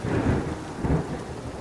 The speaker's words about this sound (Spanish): De pronto se desató una tormenta.